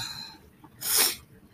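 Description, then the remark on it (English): A single sharp sneeze from allergies bursts out, a brief breathy blast of noise that fades quickly into quiet. “These allergies are kicking my ass. Like I've been sneezing all morning.”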